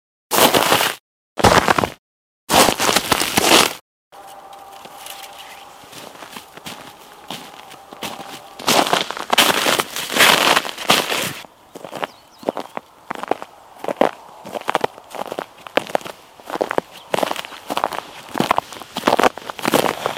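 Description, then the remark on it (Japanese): Footsteps crunch through frost needles on a satoyama hillside in the morning: three loud, brittle crunches with pauses, then a steady run of crisp, crackling steps in an uneven rhythm. No voices. “今朝は里山に降りた霜柱を踏むいい音”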